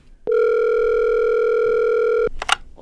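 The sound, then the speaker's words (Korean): A steady, loud telephone dial tone holds for about two seconds as a call is placed to film director Choi Jin-seong, then cuts off, followed by a couple of brief clicks or line noises. “이 영화를 어떻게 만들게 됐는지 전화 연결 한번 해보도록 하죠.”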